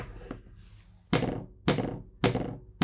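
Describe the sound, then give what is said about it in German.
A smartphone lying on a tabletop rocks and knocks as its screen is pressed to dismiss a notification; its large camera block on the diagonally opposite side makes it tip the wrong way and rock back. Four solid, hollow thunks land at a steady, roughly half-second rhythm after a quiet moment, each clack fairly loud and short. “weil der Kamerablock auf der gegen, diagonal gegenüberliegenden Seite so groß ist und wenn du da druckst, sorgt das dafür, dass dein Handy ähm, in die falsche Richtung gekippt wird mhm.”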